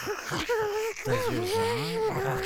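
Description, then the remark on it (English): A voice imitates a rusty camera aperture in an air duct creaking open, a strained, wavering squeal that bends up and down in pitch for a couple of seconds, fairly loud. “the air ducts have camera apertures that open and close, and they're really rusty and make a lot of noise”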